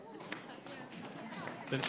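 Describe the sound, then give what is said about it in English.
A studio audience stomping and shuffling their feet at random, a dense, irregular clatter that runs steadily for about two seconds, with some murmuring voices mixed in. “Not just random foot stomping.”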